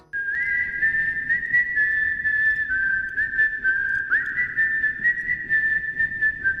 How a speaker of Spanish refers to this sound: Qué maravilla, ¿eh? un tema de Bernard Herrmann rescatado para Kill Bill